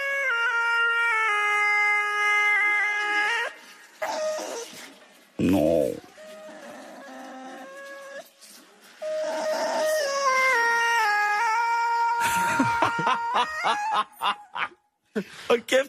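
A dog named Maggie has her long howls run through autotune, turning them into warbling, stepped pitches that hold for seconds at a time, loud, with short bursts and breaks between phrases.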